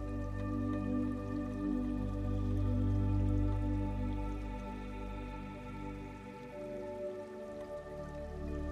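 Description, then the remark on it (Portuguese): Steady, continuous running river water babbling and trickling throughout, layered over a soft, sustained tonal drone, with no voices present. “Apenas observe esse fluxo como se estivesse sentado na margem do rio, aproveitando este delicioso som da água correndo.”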